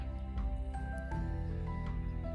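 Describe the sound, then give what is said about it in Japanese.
Strong wind buffets the microphone in a park, producing a loud, continuous low rumble with gusty fluctuations throughout, with no speech. “ああ、ちょっと風がね、強くて、もしね、風の音がうるさかったらごめんなさい。”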